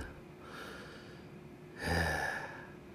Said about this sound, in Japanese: 今日はめちゃくちゃ風が強くてですね今お昼だからこの風の音も騒音に聞こえますが、これが夜になると、ものすごく怖い BGM に変わっていく、そんな気がするのは僕だけでしょうか。台風が近づいております。